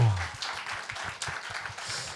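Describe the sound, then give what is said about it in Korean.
A short burst of clapping from a small group, quick irregular claps carrying steadily for a couple of seconds with a faint low rumble early on, no clear talking over it. “와 박수 한 주세요.”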